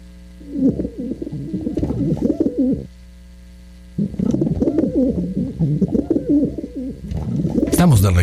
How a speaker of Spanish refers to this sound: Eso, Usted, usted está escuchando las palomitas desde Magnética FM 107.1 en el altiplano de San Luis.